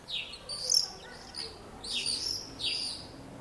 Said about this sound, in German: sondern auch eine ganze Reihe von Vögeln gerade. Nämlich die, ähm, die hier. Vielleicht kennen Sie die ja sogar.